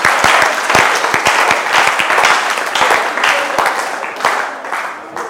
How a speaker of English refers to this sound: Wow. Why don't you clap for Uriah, the Hittite?